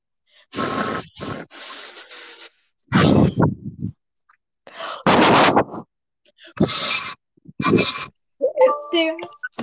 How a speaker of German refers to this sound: Atme mal jetzt ganz laut in dein Mikrofon jetzt. Was? Atme jetzt mal einfach ganz laut random in dein Mikrofon.